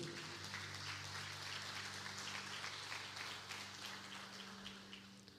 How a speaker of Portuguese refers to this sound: Você que concorda, aplauda o Senhor porque ele é bom.